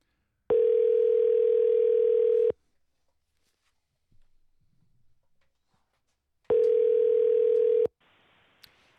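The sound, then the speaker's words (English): A steady telephone tone sounds twice, each burst about two seconds long, separated by a quiet pause with faint background rustle, like a phone line while a call is being placed. “So yeah, that was probably your uh, no, probably should be leaving her a message to let her know that you were calling her.”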